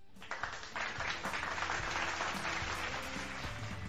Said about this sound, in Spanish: Muchísimas gracias, ahí estamos, gracias por los aplausos a aquellos que se lo están inventando, pero de todos modos... Ay, siguen las malas bromas y siguen los soniditos que tenemos en nuestra mezcladora.